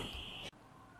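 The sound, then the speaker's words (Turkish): A loud, steady electronic alarm tone blares for about half a second in Ankara, then cuts off abruptly, leaving only quiet background noise. “Bir alarm çalmaya başladı. Alarmın bitmesini bekleyeceğim.”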